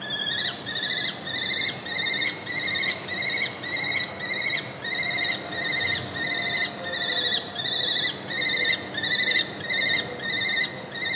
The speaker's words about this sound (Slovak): Ešte by som teda povedal, že Sokol myšiar má rozpete krídel zhruba 65 až 80 cm a dožíva sa a dožíva sa nejakých, že vraj až do 15 rokov. Takže to je eh, na eh, vtáka celkom dosť. No a ako taký sokol zneje, môžete si vypočuť práve teraz.